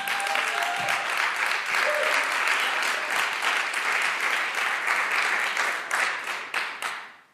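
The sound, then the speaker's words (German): A crowd applauds for Jesus steadily for several seconds, a dense wash of many hands clapping at a loud, even level before tapering off with a few last scattered claps. “Können wir einen Applaus Jesus geben?”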